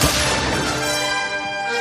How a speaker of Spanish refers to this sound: El sonido del disparo lo dice todo. Desde Dallas, Texas, muy buenas tardes.